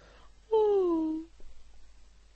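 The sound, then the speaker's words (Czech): A single soft, drawn-out yawn, a voiced sound that starts higher and slowly slides downward before trailing off, heard alone with faint background noise. “Najednou však uslyšel tiché zívnutí.”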